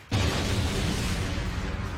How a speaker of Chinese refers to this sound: 又一声能量对撞引发的爆炸声。军医由于挡得有些仓促，真元乱窜，没办法整理好真元，所以被爆炸的余波甩了出去。